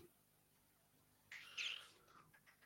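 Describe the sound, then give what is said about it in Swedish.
A small electronic temperature device lets out a quick burst of high, chirpy beeps midway through as it reads 18.9, clear, followed by a few fainter blips as it fades. “Det har, ah! pipit pip iväg, det är 18,9.”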